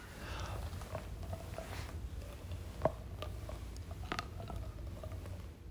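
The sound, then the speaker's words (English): A woman cracks her stiff neck, doing rotations with her mouth open, heard as a handful of small, sharp pops scattered irregularly like popcorn, quiet against a low, steady background rumble, with one crisper snap standing out midway. “she has this neck, stiff neck thing, and she can crack it”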